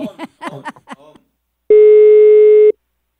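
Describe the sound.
A voice talks briefly, then after a pause a telephone busy signal sounds as the call drops: one loud, steady, buzzy low tone lasting about a second before cutting off to silence.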